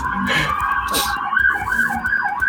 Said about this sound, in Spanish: Otra ambulancia.